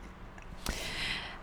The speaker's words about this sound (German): Schmatzen mit dazu.